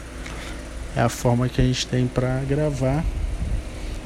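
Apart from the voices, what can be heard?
electric fan running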